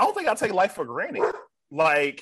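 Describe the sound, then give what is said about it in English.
A dog barks in a short, loud burst that overlaps and follows a person speaking. “excuse my dog but i don't think i take life for granted”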